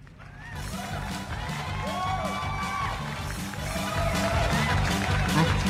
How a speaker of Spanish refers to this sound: En esta ocasión me da muchísimo gusto y yo quisiera, tenemos nuestros, nuestros aplausos listos, querido productor.